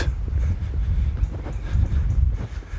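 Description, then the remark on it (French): Strong wind blows across a beach near the Plage des Dames, buffeting the microphone with a continuous low, roaring rumble that swells in gusts; no one speaks. “Je vais laisser le vent parler à ma place.”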